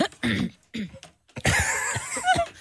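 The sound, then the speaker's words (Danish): A couple of short, sharp coughs, followed by a longer rough burst of coughing and throat noise, with brief pauses between them. “Ej, det kom uheldigt, det hoste.”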